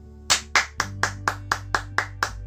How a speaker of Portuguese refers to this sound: Quem gostou, bata palmas para ela.